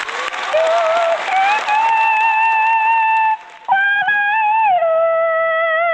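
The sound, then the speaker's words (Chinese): A crowd at a show claps loudly for a moment to welcome a guest's song, the dense applause fading quickly as a sustained singing voice with smooth, gliding tones rises and carries on alone. “来，掌声欢迎。”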